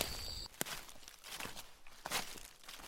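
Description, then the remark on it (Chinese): Footsteps crunch along at an unhurried, uneven pace as someone follows a hopping frog, a handful of soft scuffing steps over a quiet background, with a faint high whine fading out at the very start. “于是凯尔跟了过去。”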